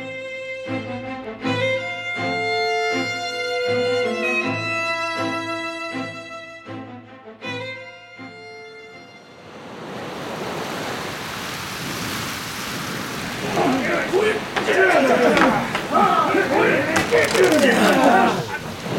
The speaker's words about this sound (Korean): 밖에 빗소리 인자 들었다더나